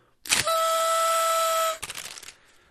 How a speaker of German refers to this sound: ich muss hier nochmal, wo habe ich sie denn hingeschmissen? Hier. Ich muss nochmal in diese Tröte blasen.